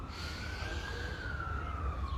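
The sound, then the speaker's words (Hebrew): A siren wails steadily outside, its tone gliding slowly downward as the vehicle passes, over a low rumbling traffic background with no one speaking. “תיזכר שוב פעם, הנה, קיבלנו מתנה, סירנה לנשום.”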